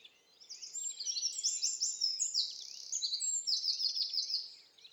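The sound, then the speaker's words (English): A wren sings a long, rapid, high-pitched song of trills and chattering notes, loud, running almost without pause for several seconds with no other sounds around it. “It's a wren.”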